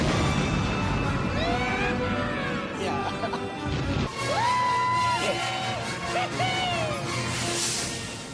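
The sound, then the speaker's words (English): A crowd in the film The Phantom Menace cheers and whoops, celebrating the pilots blowing up the droid control ship; rising and falling voices layered over a loud, continuous crashing rumble that briefly dips midway before swelling again and fading slightly at the end. “Fun fact that last little cheer that you hear at the end of the barbecue watch segment is the celebration of the pilots blowing up the droid control ship in the Phantom Menace.”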